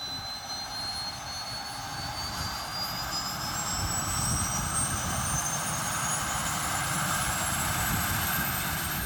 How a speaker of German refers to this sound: an diesem Geräusch, wenn eine Turboprop-Maschine ihre Turbine startet